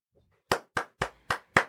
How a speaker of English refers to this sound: This is the part where the clapping comes on.